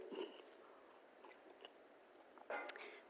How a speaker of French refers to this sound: Je vais prendre une petite gorgée d'eau.